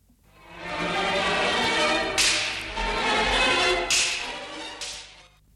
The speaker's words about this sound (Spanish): Y que no se nos olvide invitar al látigo porque si no lo invitamos es capaz de que nos da de latigazos. Que venga el látigo.